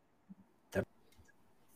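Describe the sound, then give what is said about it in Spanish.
A single sharp click from a smartwatch's orange action button, followed by a few faint ticks in otherwise quiet surroundings, with no voices. “echo de menos el, botoncito naranja tener un doble clic.”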